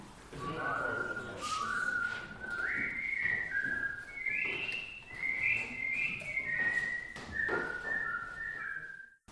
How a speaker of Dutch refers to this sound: En de derde groep fluit een merkwaardig laconiek melodietje.